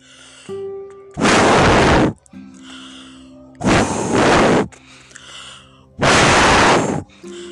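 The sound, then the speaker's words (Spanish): Three loud, long, forceful blowing bursts, each lasting about a second, separated by quieter pauses: a voice imitating a wolf blowing very hard at the eldest little pig's firm house to knock it down. “Y el lobo sopló muy fuerte”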